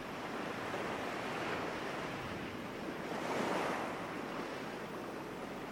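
Steady surf washing in over the feet of a person standing on sand, a broad continuous hiss of waves with a gentle swell in loudness midway, moderately loud, with no voices.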